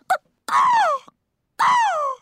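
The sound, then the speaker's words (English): A voice imitates a hawk's screech: a short yelp, then two long, loud, descending cries separated by a brief pause, with no talking. “I didn't go, I didn't go, I didn't speak hawk.”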